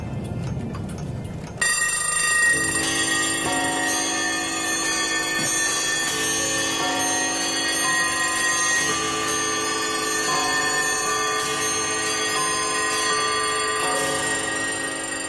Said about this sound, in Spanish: las campanas resuenan.